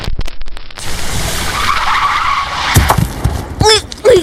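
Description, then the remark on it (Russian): Loud tire skid as a car brakes hard: a rough, sustained screech with a squealing tone running for several seconds, followed by a few short, sharp chirps near the end. “Кто так тормозит?”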